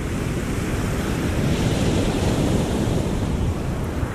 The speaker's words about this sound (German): Das klingt nach Meer, oder? Richtig, es ist das Meer. Und es, ist, es, klingt vielleicht gar nicht so spannend für den Hörer jetzt, aber das war das erste Mal, wo ich ans echte Meer gekommen bin in Tasmanien.